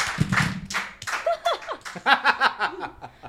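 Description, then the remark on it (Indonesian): A short burst of hand clapping as applause for a magic trick, a handful of quick claps, followed by bright voiced laughter and excited vocal sounds that take over the rest of the moment. “Eh tepuk tangan dong.”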